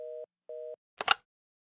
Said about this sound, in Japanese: 内線電話が鳴ったため彼はそれに出た。